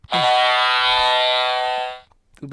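A single loud, sustained blast from a boat's air horn, a harsh buzzing tone with rich harmonics held for about two seconds before cutting off abruptly.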